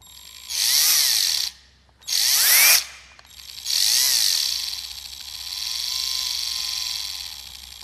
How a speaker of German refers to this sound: Jetzt kommen äh, zwei Bohrer, die, von denen du vielleicht einen, einen Bohrer gehört hast. Ähm, hier kommt der erste Bohrer.